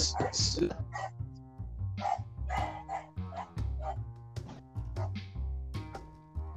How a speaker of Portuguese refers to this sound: Solta o cachorro aí, que tem um cachorro latindo.